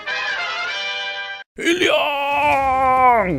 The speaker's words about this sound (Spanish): Tremendo grito que habrá pegado al cielo mi tío Olojondro Toledo luego que se enterara que el equipo especial Lavallato pidió 35 años de cárcel en su contra por las presuntas irregularidades en la concesión del tramo 4 de la carretera interoceánica